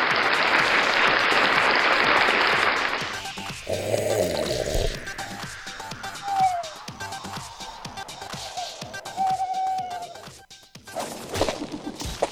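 A burst of loud, dense clapping from a crowd lasts a few seconds and then cuts off, leaving quieter scattered noises and a couple of brief whistling tones.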